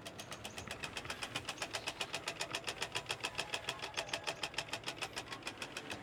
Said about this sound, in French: c'est le bruit du compteur qu'on entend tourner. Là, il y a un gros débit en ce moment, puisqu'il tourne pas mal.